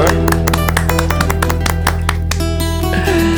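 Scattered hand clapping for a guest guitarist and composer on a live stream: a stream of sharp, irregular claps over a steady low hum, loud and continuous for a few seconds, with no clear talking.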